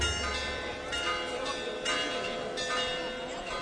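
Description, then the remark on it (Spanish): The bells of the Holy Cathedral in Huelva pealing in a steady, repeated series of strikes, their bright ringing tones overlapping and sustaining between hits, with a faint crowd murmur underneath. “Escuchamos cómo replican las campanas del templo.”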